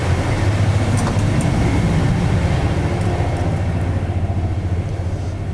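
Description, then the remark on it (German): Steady, loud rumble of a moving train made up mostly of old first-class carriages, heard from inside, with a deep droning hum and a faint rhythmic rattle running throughout, no voices. “Dieser Zug scheint ja überwiegend aus diesen alten Erste-Klasse-Wagen zu bestehen.”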